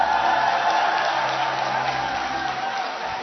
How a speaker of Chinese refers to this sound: 来拍拍手，来吧来吧来吧，临时 Q 一下，临时 Q 一下。欢呼声不够。